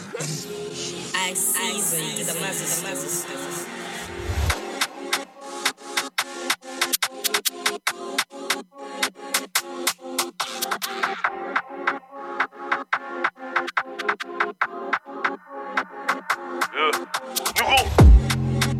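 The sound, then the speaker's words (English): A German drill rap track by a male rapper plays loudly. A busy intro gives way after a few seconds to a heavy beat with booming, sliding bass and crisp, rapid percussion hits in a steady rhythm. “the German drillers.”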